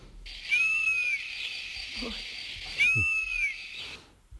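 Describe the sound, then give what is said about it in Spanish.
A European honey buzzard gives two plaintive, drawn-out whistling calls, each rising then falling, spaced about two seconds apart over a steady shrill hum of insects in the background. “Bueno, tenemos aquí una que nos fascina, falamos dela, esta que nos bota un amán, cando destrue niños enteros de velutinas, o abelleiro.”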